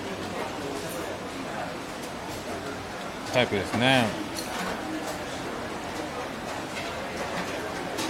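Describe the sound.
Steady wash of crowd chatter and clatter fills a busy hawker centre food court, with one voice briefly rising above the din partway through.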